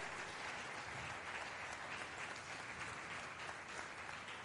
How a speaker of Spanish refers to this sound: Aleluya, démosle palmas a ese Dios, hermano, aleluya.